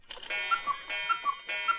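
A cuckoo clock calls three times in quick succession, each a clear two-note falling 'cuck-oo' over a soft whirring mechanism, moderately loud, with no one speaking.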